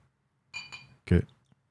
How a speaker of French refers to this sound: je vais m'ouvrir une petite bouteille de Scotch. ma marque préférée, c'est Aberlour et c'est un 15 ans d'âge.